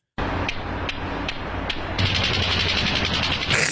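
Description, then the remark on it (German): Clacker balls knock together in sharp, evenly spaced clacks, then speed up into a rapid, loud rattling burst, with no voices. “ohrenbetäubendem Geknatter und körperlicher Gefährdung wie ein Wirbelsturm rast das Klick-Klack-Fieber vom Nordkap bis Tahiti und von New York bis Tokio.”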